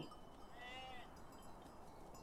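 A single sheep bleats once, a short wavering cry over a steady hiss of outdoor background noise, with nothing else standing out.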